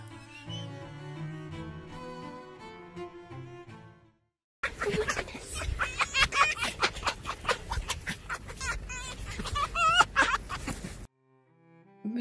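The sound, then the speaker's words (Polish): A happy fox's rapid, chattering cackle, like breathy laughter, runs in dense bursts for several seconds, loud, with soft music playing before it starts. “ten dźwięk, który wydają szczęśliwe lisy, jak się śmieją”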